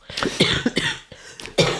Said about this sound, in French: je vous laisse tousser